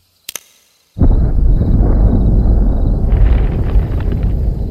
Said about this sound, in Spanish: En algún lugar en lo profundo del bosque hubo una explosión que sacudió el piso e hizo que varias aves salieran volando. La alarma del auto de Carlos se activó y le salieron grietas al pavimento. Una nube de humo negro llenó el cielo